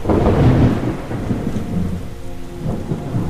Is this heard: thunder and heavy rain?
yes